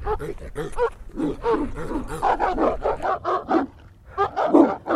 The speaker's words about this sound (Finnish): Kolmen koiran räksytys on herättänyt muiden koirien huomion, ja pian ympärilläni on pieni, mielipuolisesti haukkuva lauma.